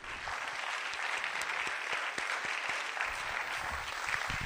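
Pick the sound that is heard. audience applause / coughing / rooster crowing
audience applause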